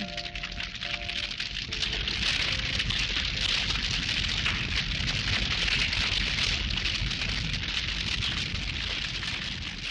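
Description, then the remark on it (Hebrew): A big fire burns a wooden carpentry workshop attached to a house, accidentally set by children playing, with a loud, steady roar and dense crackling and popping throughout, with no voices. A faint tonal hum sits underneath for the first couple of seconds. “לא, אתה לא מריח מהחלום, הנגריה נשרפת.”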